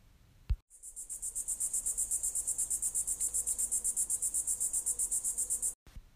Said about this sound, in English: The army could hear the hum of the insects, of which they thought was the reason for the name of this location.